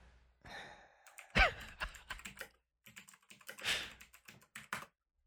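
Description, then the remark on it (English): Rapid clicky keystrokes from a mechanical keyboard in uneven bursts with short pauses, along with a soft breathy sigh near the start. “I like uh, my mechanical keyboard gives good effect.”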